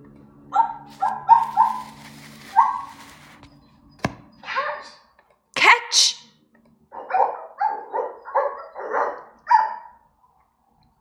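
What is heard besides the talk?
dog barking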